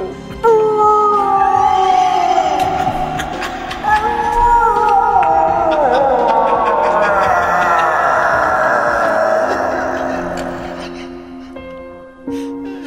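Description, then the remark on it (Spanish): A person imitates a wolf's howl: long, drawn-out wavering cries that rise and slide downward, loud, sustained for several seconds before trailing off. “Hágale como, como el lobo.”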